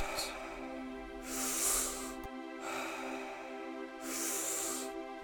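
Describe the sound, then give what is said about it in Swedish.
Deep, slow breathing: long airy rushes of inhaling and exhaling, two strong breaths and a softer one between them, over a steady low droning background with no talking. “Fem till med fullt fokus. In och ut.”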